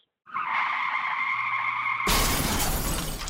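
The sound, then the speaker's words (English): A long, high car tire screech builds for about two seconds, then cuts into a loud, harsh car crash with a burst of breaking glass that rattles and scatters before fading slightly. “we hope this never happens to you. If it does, you need a professional to take care of your car.”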